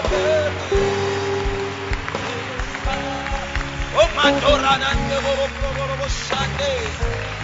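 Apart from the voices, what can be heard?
audience clapping hands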